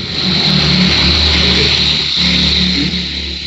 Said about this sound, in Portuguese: É uma carreta da Tratores Teixeira passando aí.